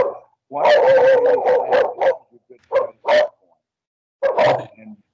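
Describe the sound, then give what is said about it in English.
Dogs bark in a quick, overlapping flurry, then a few scattered single barks and a short final burst. No one speaks. “Uh, yeah, the dogs are going to be at it for a while.”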